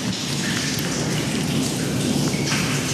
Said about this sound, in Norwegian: Hører man det som mest sannsynlig er T-banen, og det, det, er over oss, ja. Så vi på en måte Vi går i en tunnel under eh, T-banesystemet, så nå begynner vi å komme oss en del meter ned i, under bakken her. Ja. I hjertet av Oslo.